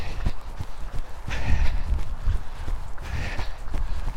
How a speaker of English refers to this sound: Uh, but a week has passed now, and as you can hear, I'm back running. It is windy and it is wet. And it's a Monday night in the middle of February.